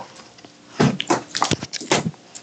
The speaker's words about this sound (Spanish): Lo va a morder. Mordió el micrófono el perro.